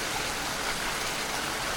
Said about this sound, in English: And still the rain came down.